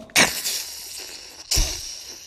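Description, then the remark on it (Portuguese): A voice imitates thunder with two loud, harsh, noisy bursts, each starting abruptly and then trailing off into a rough, hissing rumble. No words are spoken. “Trovão. Como é que faz o trovão?”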